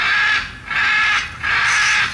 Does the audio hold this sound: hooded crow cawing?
yes